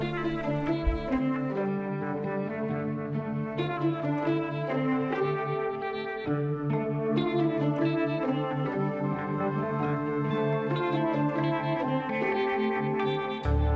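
A female blues musician's blues-style cover of a rock song plays without a break: rich, sustained chords and held tones at an even, moderate loudness from start to finish, with no talking over it.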